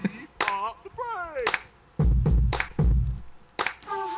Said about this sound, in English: Got some claps again.